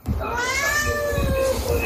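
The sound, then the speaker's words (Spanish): A cat lets out a long, drawn-out meow that wavers in pitch, loud, with a low rumbling background underneath for the whole stretch. “Ese gato sí que sabe.”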